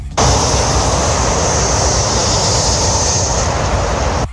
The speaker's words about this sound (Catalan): és el que els veïns de Cantabola escolten constantment des del carrer o casa seva. L'alt volum de trànsit de l'AP7 al seu pas per Montmeló i la ubicació del barri tan a prop de l'autopista fa que la contaminació acústica sigui notable.